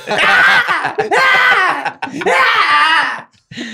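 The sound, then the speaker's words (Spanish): Three long, harsh, wailing screams from a bobcat (gato montés), loud, each rising and falling in pitch with brief pauses between them and no talking. “Y lo que estamos viendo es el grito de una osa real para los que son de allá o un o gato montés para los que somos del el resto del país.”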